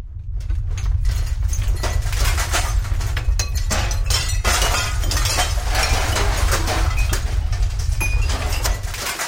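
A loud, sustained crash of breaking and shattering debris over a deep rumble as a pumping station's walls crack and collapse after an explosion triggered by Subu, with clattering fragments continuing throughout and no voices.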